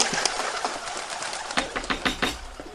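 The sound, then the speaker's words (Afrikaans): Doves cooing amid a steady hiss of background noise, with a series of short, repeated bursts that grow more frequent toward the end. No one speaks. “Jaag die nade duwe weg.”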